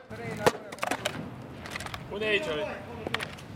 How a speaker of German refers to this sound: Die Schausteller und Budenbesitzer schrauben und hämmern zu Kiliani.